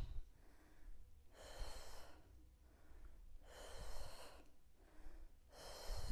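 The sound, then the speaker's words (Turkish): Heavy breathing during a workout after squats, three strong, airy breaths spaced about two seconds apart, each a broad rushing exhale or inhale, over a low rumble with no talking. “Nefes al, ver.”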